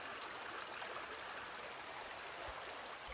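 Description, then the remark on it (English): A creek trickles steadily and softly, a continuous gentle wash of running water with a faint bubbling texture and no voices, holding an even level from start to finish. “Listen to the stream of the creek. Do you hear the waters trickling?”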